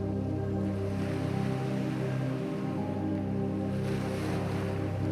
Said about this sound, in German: Das leise Rauschen der Wellen sinkt dich in den Schlaf.